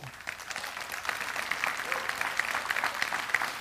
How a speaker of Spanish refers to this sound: Eso se llama un aplauso retrasado. Ese aplauso estaba en, Bluetooth. Si usted ha visto el Bluetooth, que usted está viendo un video y el video está hablando, pero las palabras bien no van juntas. Así fue ese aplauso.